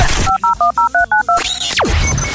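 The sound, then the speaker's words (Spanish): A quick run of about seven touch-tone keypad beeps, evenly spaced and clear, each a short dual-pitched tone, followed by a rising whoosh and a low background hum. “Este teléfono es más tuyo que mío, hombre. Llamame, utilizalo.”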